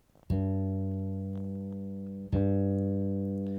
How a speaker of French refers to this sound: Donc je vais accorder ma corde de sol, je vais ouvrir le son hop, sur la basse, c'est parti.